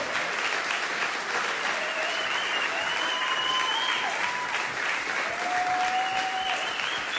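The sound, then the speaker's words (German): Steady, sustained applause from an audience as three couples come onto the stage, a dense wash of clapping at a constant loud level for several seconds, with a few faint whistles or cheers riding above it. “Lasst uns ihnen mal einen Applaus geben, wenn sie jetzt auf die Bühne kommen.”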